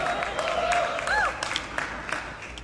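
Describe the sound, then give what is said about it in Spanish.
An audience applauds with dense, steady clapping throughout, joined briefly by a few cheers and whoops rising over the crowd noise. “Padre, toca a los que no aplaudieron, Señor.”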